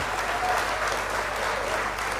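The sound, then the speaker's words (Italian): A burst of canned applause: dense, steady crowd clapping that holds at an even, fairly loud level for a couple of seconds with no clear voices. “allora, loro applaudono veramente, l'audio non riesco a prenderlo da loro, se no arriverebbe di tutto, quindi senti i, i, gli urletti e gli applausi sempre uguali, ma perché quello era necessario.”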